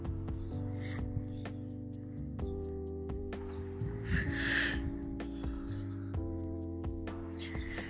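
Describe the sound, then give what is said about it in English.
A single drawn-in breath followed by an airy exhale, a hit from a cannabis vape pen, rising briefly midway over a steady tonal hum in the background. “So uh, I'll take another hit just to verify that.”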